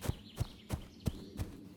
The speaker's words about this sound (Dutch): Ze sprong op haar paard en galoppeerde naar het kasteel.